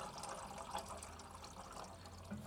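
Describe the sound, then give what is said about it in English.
Water runs steadily into a kettle as a man fills it at a stove, a continuous hissing, gurgling stream at a fairly low level with no voices. “He walks back to the stove and fills the kettle, standing directly above the corpse.”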